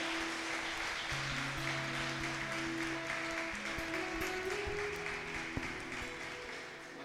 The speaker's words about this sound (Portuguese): Aleluia, aplauda o Senhor. Aleluia.